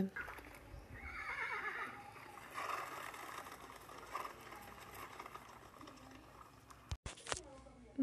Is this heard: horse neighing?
yes